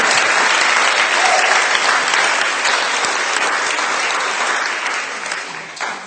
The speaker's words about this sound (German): Also die Sonne scheint und sie sind noch ein bisschen träge und müde, deswegen musste ich sie auch extra animieren, mal Applaus zu geben.